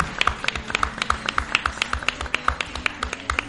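Audience applause for members of the town council seated in the front row: a steady run of sharp, crisp claps repeating quickly for several seconds at moderate loudness, with no voices over it.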